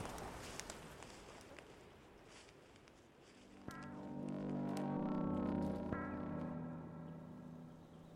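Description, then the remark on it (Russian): Forest ASMR recording by studio Tolk: crunching footsteps and rustling for the first few seconds, then a loud, low droning tone swells in and holds, partly covering the steps. No one speaks. “Надеюсь, вам понравился лесной СМР от студии «Толк».”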